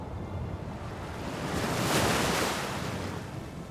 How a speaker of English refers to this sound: Except now, it was too late. A tremendous gale hit, and it kept on hitting.